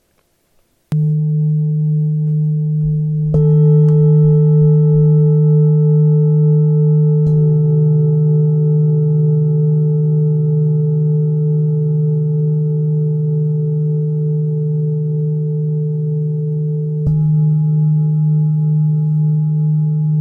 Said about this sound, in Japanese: 私が使っているのはチベタンシンギングボールといってチベットが発祥の楽器になります。